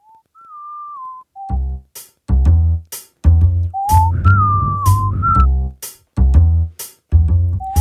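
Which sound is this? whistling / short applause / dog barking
whistling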